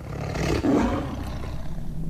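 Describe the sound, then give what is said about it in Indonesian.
A tiger lets out one long, deep roar, loud, swelling early and then rumbling on as a rough growl until the end. No one speaks. “terus tiba-tiba Caca dengar suara macan”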